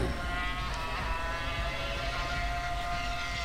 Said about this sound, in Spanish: En este momento arrancan los automóviles, rugen los motores, los decibeles del ruido que producen es insoportable.